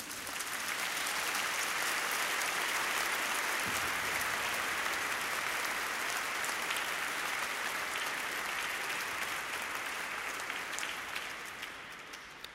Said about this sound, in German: Super. Da habt ihr euch einen richtigen Applaus verdient.